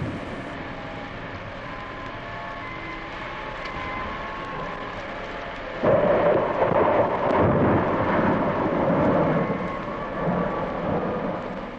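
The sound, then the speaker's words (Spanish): A violent thunderstorm: a steady, heavy roar of rain and deep rumbling that surges noticeably louder about halfway through and keeps churning to the end, with no voices. “Pero sus habitantes se entregaron al lujo y a la molicie y la ciudad fue castigada fue tragada por una violenta tempestad.”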